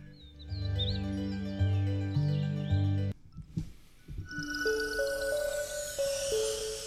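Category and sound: bird, birdsong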